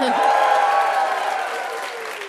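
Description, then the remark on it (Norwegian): A theatre audience at Parkteatret in Oslo, Norway, at a live radio show's 40th-anniversary broadcast, bursts into loud, steady applause mixed with cheering and whooping voices, a dense wash of clapping that holds strong and eases slightly toward the end. “Og vi er på Parkteatret i Oslo med publikum i salen. Kan vi få høre dere?”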